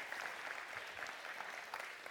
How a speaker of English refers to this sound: Yeah, yeah, you can give her a little round of applause.